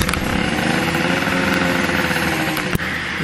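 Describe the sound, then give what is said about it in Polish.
A small scooter engine idles steadily at a gas station just after refuelling, a continuous buzzing hum with a faint rattle, broken by one brief click near the end. No voices. “Zatankowany, świeci się, nie świeci się kontrolka, no, możemy jechać.”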